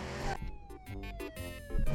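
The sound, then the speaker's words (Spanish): A police siren sound effect wails in one slow, steady downward sweep, fairly loud, over rumbling traffic noise and a few bursts of clatter. “Ponme la policía.”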